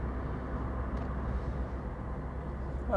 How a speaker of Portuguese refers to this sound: neste momento, aqui neste, neste carro, eu vou bem devagar, vou a 50 km por hora, vou em quarta e vou em, digamos, em velocidade de cruzeiro, não é?